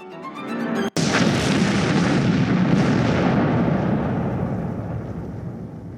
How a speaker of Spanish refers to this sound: La espiral se fue achicando y luego de unos dos minutos el choque era inevitable. Y se produjo la fusión de las estrellas, un cataclismo que generó un estallido de materia y radiación.